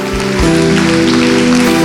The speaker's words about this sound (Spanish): Va, si va a aplaudir, aplauda fuerte.